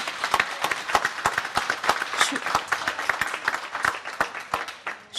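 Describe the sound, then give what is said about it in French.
An audience applauds a speaker after she says the public hospital and its staff are in major difficulty, many hands clapping in a dense, crackling patter with sharp individual claps standing out, sustained at a moderate level throughout without any speech. “suis désolée d'être applaudie pour ça parce que parce que c'est pas drôle et parce que parce que l'hôpital public est en danger”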